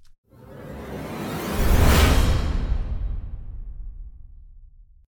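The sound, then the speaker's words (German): A single small riser sound effect near the end of a music piece: a broad, airy whoosh that swells up over about two seconds to a bright peak, then slowly fades away with a low rumbling tail. No voices. “Und äh, dann gehen wir auf den Schluss, denn wir haben so einen, einen kleinen Riser.”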